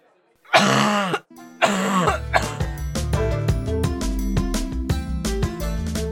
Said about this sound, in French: c'est vrai que ce monsieur dans la Twingo là, vous l'avez entendu qui toussait bizarrement.